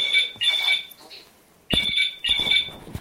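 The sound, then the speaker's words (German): A telephone rings in repeated bursts of bright, warbling electronic tone, two rings, then a pause, then two more, clear with no one speaking. “Ich muss mal kurz das Telefon. So, dank der Telefonunterbrechung weiß ich jetzt gar nicht mehr, wo ich war.”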